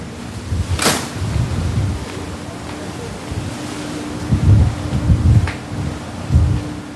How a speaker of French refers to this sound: La grande porte à la poupe qui se referme, cadenassant nos libertés vis-à-vis de la terre ferme pour quelques heures.